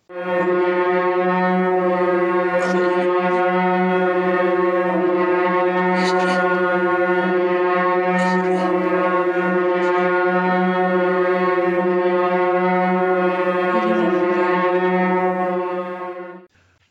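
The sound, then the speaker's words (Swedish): A loud electronic soundtrack in a Bergman film, coming in suddenly from nowhere: a constant, buzzing synthesizer drone rich in harmonics that holds steady for about sixteen seconds, with a few brief bright accents, before stopping abruptly. “Det här väldigt högljudda elektroniska soundtracket som kommer in här helt plötsligt från ingenstans.”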